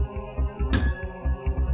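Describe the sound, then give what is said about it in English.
A hotel reception desk bell dings once, sharp and bright, its metallic ring lingering before fading out, over a soft, steady low rhythmic pulse in the background. “By the way, I should mention this bell that I just dinged.”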